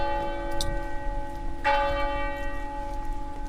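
Church bells ring in Italy's first red zone with long, sustained overlapping tones, a fresh strike landing partway through and blooming over the lingering hum; steady and moderately loud, with no voices.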